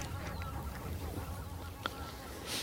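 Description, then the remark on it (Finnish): A very large flock of tundra and taiga bean geese honks from a field about 200 metres away, a dense, continuous chorus of overlapping calls over a steady low outdoor rumble, with one brief sharper sound standing out. “Joo, täällä ollaan hanhiparven läheisyydessä, siis tundrahanhia ja metsähanhia.”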